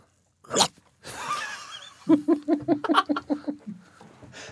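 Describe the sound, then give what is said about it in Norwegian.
A voice imitates a snapping shark: a sharp burst and a breathy rush, then a quick run of about ten rhythmic chomping, gulping sounds, fairly loud. “hvordan høres haien ut?”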